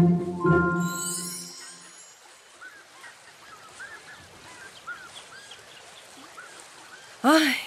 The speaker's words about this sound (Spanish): Respirar este aire fresco, escuchar el agua del río, ver los peces nadando mira un salmón!